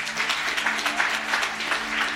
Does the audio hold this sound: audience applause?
yes